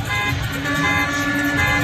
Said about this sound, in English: So you had the Rutherford County Sheriff's Department escorting, and you had a crowd of fans honking horns, shaking those bells,